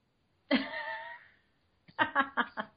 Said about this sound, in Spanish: He dejado este hueco para toser.